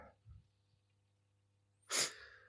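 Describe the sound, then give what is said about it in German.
A single short, forceful sniffle from someone who is ill: a sudden burst of breathy nasal noise after a near-silent pause, with no talking around it. “Ich werde hier und da mal ein bisschen schniefen und ein bisschen ähm, husten.”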